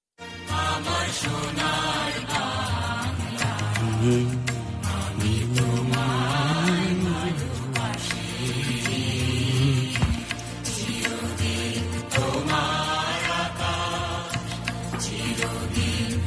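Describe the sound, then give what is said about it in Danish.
The national anthem of Bangladesh plays as a loud, full instrumental arrangement with sustained melodic lines and frequent punchy percussion hits, continuing steadily throughout with no one speaking. “Det her, det var øh, nationalsangen fra Bangladesh.”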